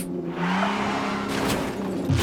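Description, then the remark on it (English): A speeding car doing 85 on a ramp around a building roars past with a steady engine drone and squealing tires, punctuated by a couple of harsh scraping bursts as a fender grinds off against a wall. “Whoops, there goes a fender.”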